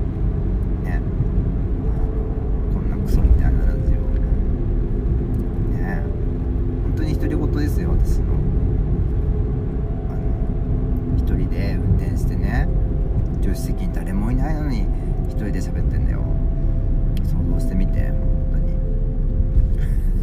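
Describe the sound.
Steady, deep rumble of road and engine noise from inside a moving car, continuous and even throughout, with faint indistinct voices murmuring beneath it.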